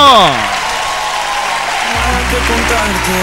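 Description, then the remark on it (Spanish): A crowd applauds the person at the music controls during a Valentine's Day special program, in a steady, dense wash of clapping that carries through the whole clip, while a falling tone opens it and low musical notes come in partway through. “Fuerte el aplauso para usted también”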